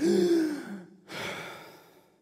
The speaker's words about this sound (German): Aber es gibt nichts Schöneres, wenn du runtergetaucht bist, den Ring geholt hast und dann, wenn du dann an die Oberfläche kommst, einmal einen richtig tiefen Atemzug nehmen kannst.